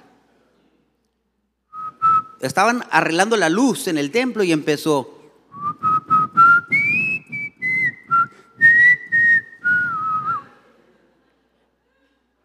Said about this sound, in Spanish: No lo voy a cantar, pero se la voy a chiflar.